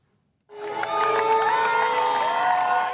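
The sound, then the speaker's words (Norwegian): A large crowd of over 8,000 at a Republican campaign rally for Mitt Romney and Paul Ryan in Wisconsin bursts into loud, sustained cheering after a brief silence, with high shouts and whoops layered over a dense roar that holds steady to the end. “Han står på scenen sammen med visepresidentkandidat Paul Ryan i hjemstaten hans Wisconsin og ser utover 8000 frammøtte.”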